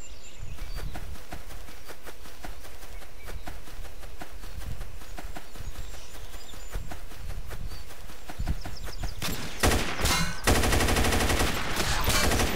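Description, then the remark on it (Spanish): Rapid, sharp video game gunfire from a 9mm Machine weapon crackles in quick repeated bursts, building into a loud, dense stretch of automatic shots near the end, with no voices. “¿Escuchan el poder de mi arma?”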